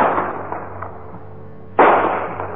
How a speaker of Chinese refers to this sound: 鞭炮的声音清脆，顺着洞穴传得很远，声音在洞穴的墙壁上来回的反弹。形成奇怪的回声。